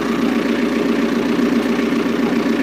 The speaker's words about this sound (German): Ja, das ist der Motor, ja. der noch nicht gedämpft ist.